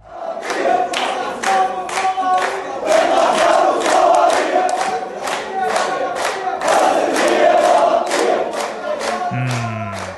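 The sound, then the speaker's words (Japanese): A large crowd shouts and chants together outdoors at an entrance used by Palestinians in the Old City of Jerusalem, recorded on May 10, a dense, loud roar of many voices rising in rhythmic waves with sharp bursts throughout, steady for the whole stretch. “これね、なんかたくさんの人が何かを叫んでいる様子ですけれども、これはどういうことでしょうかね。”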